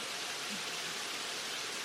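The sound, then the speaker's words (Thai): A steady, even hiss of rain falls throughout, soft and continuous with no breaks or distinct drops standing out, and no one speaking. “ออกไปไม่ได้ ฝนตก”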